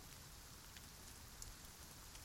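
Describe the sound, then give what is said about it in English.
Steady rain hisses down in a forest at night with an even, constant wash, soft overall, with a few brighter droplet ticks popping out now and then. No voices. “Should we make a run through the rain and the trees to the tents, or.”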